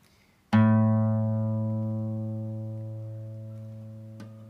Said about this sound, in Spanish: Así se llama la nota de la o A. Bueno, vamos a aprender. Vamos a decir, ¿dónde está esa nota? Bueno, en la guitarra está en la quinta cuerda al aire.